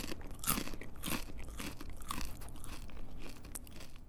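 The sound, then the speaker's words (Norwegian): Home-baked, oven-dried crispbread being bitten and chewed, a steady run of loud, dry crunches repeating every half second or so, with no talking over it. “De er ferdige når de høres slik ut.”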